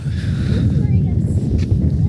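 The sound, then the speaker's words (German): Steady outdoor wind on a cool, sunny day in March buffets the microphone with a loud, continuous low rumble that never lets up, and a muffled voice may sit faintly underneath. “Man hat ziemlich Wind, wie man vielleicht auch hört.”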